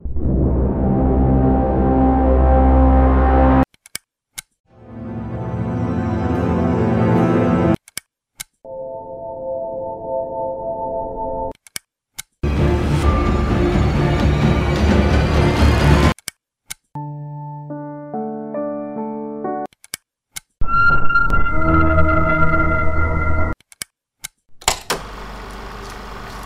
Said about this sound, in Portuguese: Então sem mais enrolação, solta a vinheta.